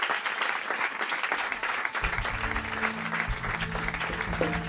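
Sustained applause from a crowd, a dense steady crackle of clapping lasting several seconds, with low tonal musical notes entering faintly underneath partway through.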